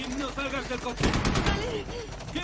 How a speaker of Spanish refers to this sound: Un soldado asomado a la puerta del techo del vehículo dispara.